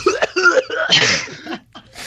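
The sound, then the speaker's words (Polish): A voice imitates a stifled cough and choking, a series of strained, sputtering bursts and gasps with a breathy hiss, fairly loud, with no clear words. “No i tak, wiesz, mijam jakąś parkę, mijam kogoś tam, ktoś tutaj obok idzie i tak czuję, że kurde, muszę od, odkasznąć. I, no i w pewnym momencie, kurde, nie doniosę i tak się zacząłem, wiesz, tak dusić, tak”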